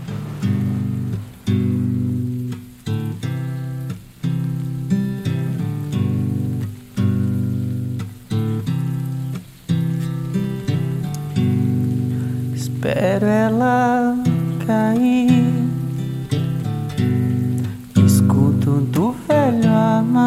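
A song plays loud and close: steady, evenly pulsed chords over sustained low tones, with a bright sliding melodic line rising in around the middle and returning near the end.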